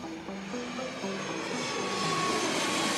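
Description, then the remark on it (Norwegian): A jet airplane landing in Lima, Peru, roars steadily with a broad, even engine rush and a few sustained tonal whines, the noise gradually swelling louder over the few seconds; no one speaks. “Tove lander i Lima.”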